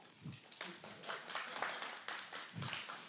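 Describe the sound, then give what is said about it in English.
An audience claps after a closing prayer, steadily for about three seconds, a dense, fairly soft patter of many hands with a couple of brief low murmurs or shouts mixed in. “Clap now.”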